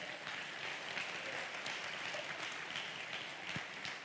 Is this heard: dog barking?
no